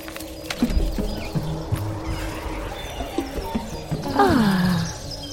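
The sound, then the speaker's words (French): Footsteps crunch on gravel at an uneven walking pace in the garden of a house, with birds singing in the background and a louder, falling call rising out of the scene near the end. “Pas un bruit, sauf les oiseaux qui chantent et le gravillon qui roule sous nos pas.”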